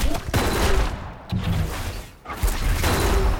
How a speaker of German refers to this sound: Jede Karte explodierte in goldene Funken und betäubte kurzzeitig Bombolinis Söldner, die daraufhin in alle Richtungen zu feuern begannen.